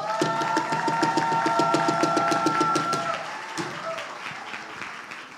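An audience breaks into applause, many hands clapping in a dense, steady patter over a sustained musical tone that stops after three seconds, then the clapping gradually thins out and fades.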